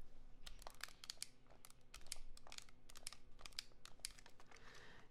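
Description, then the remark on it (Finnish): The hard plastic body of a camera creaks and crackles in quick, irregular bursts as it is squeezed in the hand, a dry ticking and crinkling that repeats for several seconds with no talking. “No ensinnäkin, jos mun ei sanoin, kun jos mä otan tämän käteen ja mä pikkasen puristan tätä, niin se kuulostaa tältä.”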